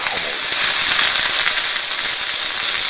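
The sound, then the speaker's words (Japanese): Loud, steady sizzling of food put into a frying pan preheated hard until it is smoking, a dense hiss with crackling pops throughout, with no talking over it. “もうガンガンに予熱してさもう煙が今バンバン出てきましたけどこの状態からこう突っ込むじゃん”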